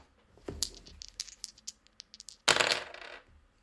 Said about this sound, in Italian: Se ancora non l'hai fatto, lancia due dadi per stabilire con quante piastre inizi il viaggio. Lanciamo i dadi.